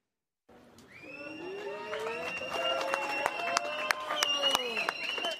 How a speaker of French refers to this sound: C'est sous les applaudissements de ses soutiens que le père de la petite fille agressée est sorti du tribunal.